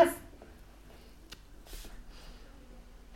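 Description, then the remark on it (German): A quick, soft hiss of an asthma inhaler puff, close to the mic and fairly quiet, trailed by a fainter second hiss against a quiet background with no talking. “Asthma-Spray”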